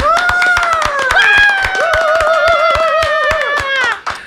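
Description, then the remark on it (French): An audience claps in a steady rhythm to welcome a guest onto a show, the sharp claps cutting through bright, sustained music playing throughout at a lively, fairly loud level. “On applaudit.”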